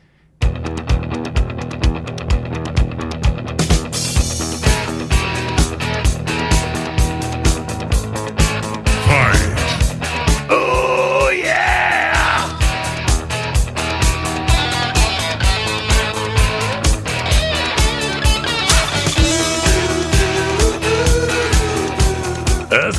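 A loud rock song plays on air without a break, with a steady, driving drum beat under a dense full band and melodic lead lines rising and falling over it.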